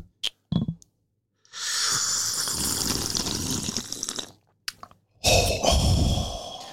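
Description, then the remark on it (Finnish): A couple of loud slurps of hot coffee: a few soft clicks, then a long airy slurp, a brief pause, and a shorter second slurp. “Kyllä, no otetaanko tähän Otetaanpa yhdet, yhdet, yhdet pikkuryystöt?”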